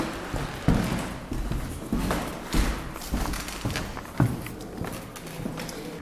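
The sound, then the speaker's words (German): Footsteps of several people walking through an exhibition across a hard floor, a steady, uneven patter of thuds and taps over a roomy background hum, with no one talking. “Okay, vielleicht gehen wir dann ein paar Schritte durch mhm.”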